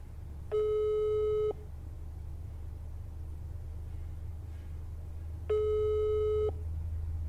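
A telephone ringback tone sounds twice, each a steady electronic burst about a second long separated by a long pause, over a low rumbling background hum with no one talking.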